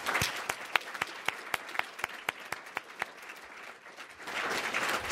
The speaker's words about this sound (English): And uh, so let's give them a final round of applause and thanks.